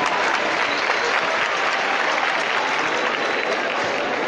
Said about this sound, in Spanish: Pues sí, habéis escuchado ese sonido de apertura de puertas y la ovación de todo el público que se congrega en la calle San Carlos.